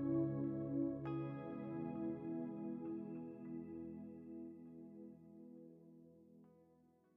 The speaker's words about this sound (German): Du wirst nun dreimal den Gong hören und nach dem dritten Gong kannst du deine Augen wieder öffnen und wach werden.